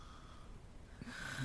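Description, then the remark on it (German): A person snores softly, a single short, rough snort rising near the end of a quiet, hissy moment with no talking. “Nur das zu Schnarchen, das ist nicht in Ordnung.”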